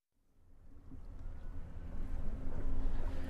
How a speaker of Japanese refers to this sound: さあ今僕がいるのは前川の上ですほんのりと音が聞こえると思いますが今船に乗っておりますロ船の遊覧船に今乗って前川十二橋巡りをしている最中ですこのねロブネっていうの僕初めて乗ったんですけれども木で作られてて水面もね近いんですよ今水触ってます音聞こえますか